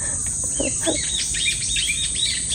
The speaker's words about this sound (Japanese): ちょっとすごいね、今。追いかけっこしてますね、鳥が。